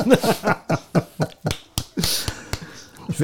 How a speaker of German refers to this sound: Also so behindert sind wir noch nicht, dass wir nicht selber klatschen können.